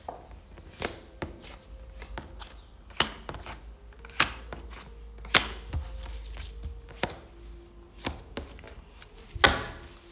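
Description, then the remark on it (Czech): Playing cards being shuffled for a relationship card reading: a series of sharp, crisp snaps and taps at an uneven pace, with a quiet hum underneath and no talking. “A já už se dívám na vaše fotky, míchám karty a my se na to pořádně podíváme.”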